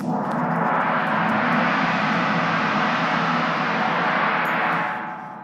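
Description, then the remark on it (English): A gong resounds in a loud, continuous shimmering roar that swells quickly and holds steady for several seconds before starting to fade, with no voices over it. “I am only a resounding gong or a clanging cymbal. I've got my gong with me here today.”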